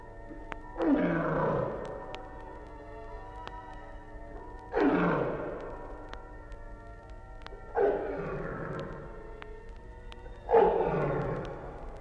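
tiger roaring

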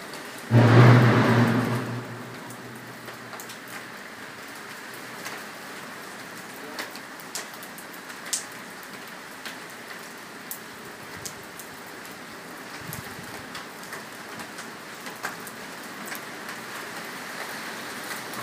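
rain falling

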